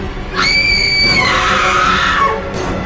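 A woman lets out a loud, sustained scream as she suddenly wakes from deep sleep, high-pitched and piercing, rising sharply then sliding down in pitch over a couple of seconds, alone with no talking.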